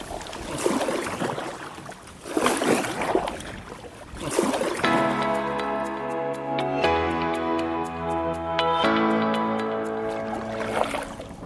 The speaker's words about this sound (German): Na, am besten wir paddeln erst mal.